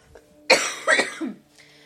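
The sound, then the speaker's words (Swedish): A short coughing fit from a man getting over a cold: three harsh coughs in quick succession, the first loudest and the last trailing off into a rougher, throaty rasp. No talking. “Ni får ursäkta mina hostattacker här.”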